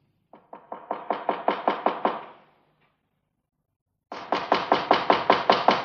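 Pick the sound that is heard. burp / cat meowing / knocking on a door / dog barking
knocking on a door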